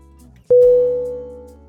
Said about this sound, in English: Alarm A L A R M Definition a loud noise or an automatic signal that warns people of danger. A device that signals the occurrence of some undesirable event or particular danger.